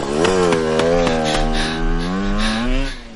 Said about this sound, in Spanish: La moto se marcha.